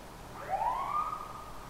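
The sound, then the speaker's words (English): An emergency vehicle siren wails, its pitch climbing and then holding steady in one sustained sweep, heard alone at moderate volume over a low background rumble. “When we listen to the Han or we hear a siren, what is it telling us?”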